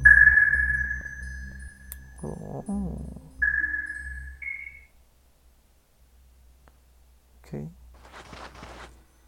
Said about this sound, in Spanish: Las corrientes eléctricas, la luz de nuestro universo de sonar, no se reflejan como la luz, por lo que no aparecerán imágenes pero puedes enviar señales acústicas y recibir su eco.